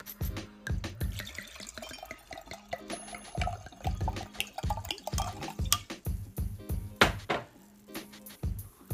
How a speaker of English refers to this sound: So, as always, the rule is I don't try the wine until we start recording. So, here goes the first, well, the first pour and sip.